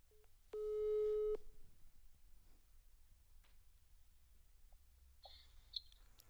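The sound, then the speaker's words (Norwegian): A single long telephone ringback tone sounds while a call is being placed, a steady electronic purr lasting about a second, followed by a quiet line with a few faint clicks. “Og nå skal jeg rett og slett ta og ringe henne med en gang.”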